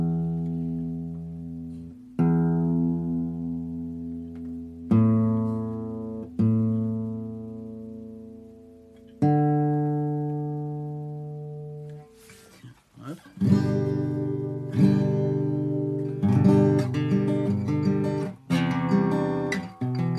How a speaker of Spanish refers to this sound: Porque estoy usando mi celular y así yo afino mi guitarra. Así que voy a ver si lo hago aquí.